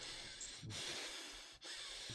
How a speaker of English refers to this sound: you can hear the deep breathing. That's all you hear. It's just like a deadpan face, just staring at you with dead eyes, breathing.